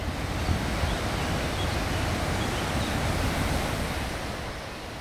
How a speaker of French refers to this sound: Oh, écoute, c'est les pertes de la Valserine. C'est l'endroit le plus agité de la rivière. Elle s'engouffre dans la roche. C'est très impressionnant.